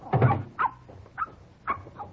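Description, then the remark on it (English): A dog being put in a car lets out a fuller bark followed by four short, high whimpering yips spaced about half a second apart, moderately loud, with no talking. “Let me put the dog in the car, and then I will show you.”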